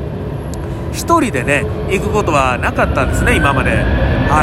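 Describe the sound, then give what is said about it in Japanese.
A steady, heavy engine roar from an airplane fills the background, loud and continuous beneath a man talking in the foreground. “飛行機がすごい飛行機がすごい声が入ってるのが果たしてわあすごいエンジン音だすっごいエンジン音だうわーすっごいなこれものすごいものすごい音だなこれ”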